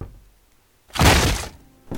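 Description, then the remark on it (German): Knocking on an apartment door: a loud, heavy thudding burst after a quiet moment, followed shortly by a second knock at the very end. No voices. “Markus Maria klopft an Ritas Wohnungstür.”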